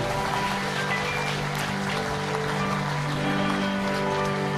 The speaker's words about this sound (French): Est-ce qu'on peut donner une main d'acclamation à Jésus dans ce lieu